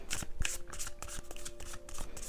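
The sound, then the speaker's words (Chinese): A deck of Osho Zen tarot cards being shuffled before a card is drawn, with a steady stream of quick, papery flicks and soft slaps running for a couple of seconds at a moderate, fairly quiet level. No one speaks. “先让我抽奥修禅卡”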